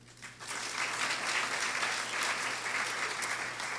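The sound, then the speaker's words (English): Sustained applause from a literary arts festival audience for the festival's sponsors, a dense steady patter of many hands clapping that swells in within the first half second and holds at an even level throughout, with no talking over it. “As I mentioned their name, please join me in giving them a warm round of applause.”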